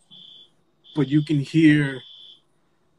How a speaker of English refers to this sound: No, that's a smoke alarm, oh. smoke detector. Hopefully they take care of that.